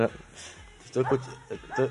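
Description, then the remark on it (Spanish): A dog barks a few times in short bursts, with two quick pairs of barks following a brief quiet moment, fairly loud against a low background hum. “Estoy, escuchando este hasta perros y todo ya.”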